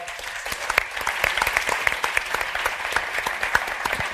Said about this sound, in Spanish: Un aplauso para ella.